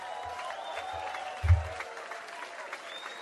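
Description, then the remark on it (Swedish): An audience applauds steadily, a dense wash of many hands clapping at an even, moderate level, with a brief low thump partway through and a faint voice murmuring beneath. “Nej, men nu tror jag vi har bättre oh. applåder.”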